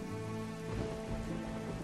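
Heavy rain of a violent thunderstorm pours down in a steady, dense hiss, spattering continuously on a surface with no pauses and no voices, on arrival at Lariboisière hospital.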